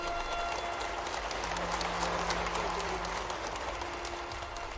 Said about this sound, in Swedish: tackades av utanför Palazzo Chigi ville applåderna aldrig ta slut